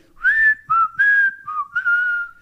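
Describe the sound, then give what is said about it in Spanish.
A person whistles a short four-note street vendor's call, imitating an ice cream seller's whistle, with bright sliding tones in a quick, slightly uneven rhythm, clear with no talking. “A mí me gusta más el silbido del heladero.”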